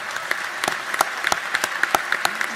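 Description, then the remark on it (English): Sustained standing-ovation applause from a large crowd at a joint session of the Georgia General Assembly under the Gold Dome, during Governor Brian Kemp's State of the State address, honoring Senator Johnny Isakson; dense overlapping claps with a few louder ones standing out, continuing steadily throughout. “And another standing ovation there.”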